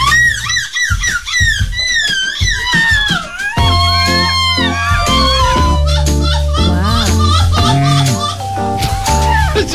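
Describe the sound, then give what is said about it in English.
Several adults loudly imitate seagull screeches at the third annual European Seagull Screeching Championships, their voices rising and falling in wavering cries over one another, with a low sustained hum underneath. “groups of grown up people making seagull noises.”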